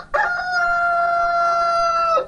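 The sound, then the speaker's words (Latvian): A rooster crows once, a single loud, drawn-out call lasting about two seconds, clear with no other sounds around it. It is used as the opening of a morning Latvian Radio segment for country people. “Bet arī nesenā pagātnē, kad ik rītu pulksten 6.45 skanēja Māras Variks veidotais sižets lauku ļaudīm, to ievadīja gaļa dziesma.”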